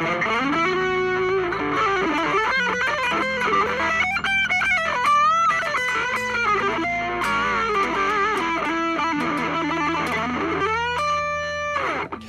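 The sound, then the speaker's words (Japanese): A distorted electric guitar plays a quick improvised solo, runs and bends over an E minor scale following the song's chord progression and key, over a steady backing, notes tumbling rapidly up and down the scale with a loud, sustained tone and no talking. “で曲のコード進行とか曲のキーに合わせて E マイナーとか。なスケールの上をなぞるなぞるっていうかまあなぞってますわ私は。”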